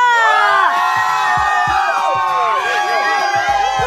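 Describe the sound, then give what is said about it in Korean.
A dense crowd cheers and shouts loudly for about four seconds, with many high voices whooping and rising and falling over a steady roar of noise, answering the host's call to shout once more on the live weekend radio show Funky Saturday. “한 번 더 소리 질러!”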